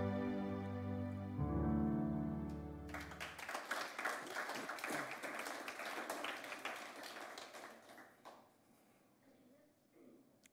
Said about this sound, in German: dass ihr geklatscht habt